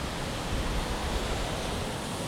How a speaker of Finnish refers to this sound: aallot on korkeita, ylimetrisiä. Ne on erittäin harvinaisia tässä Päijänteellä.